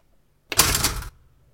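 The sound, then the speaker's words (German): A toaster lever is pushed down in a basement, setting off a brief, bright metallic spring rattle that starts abruptly, buzzes for about half a second and cuts off cleanly, with no voices. “Ich habe extra für diese Folge einen Toaster hier unten in den Keller gebracht.”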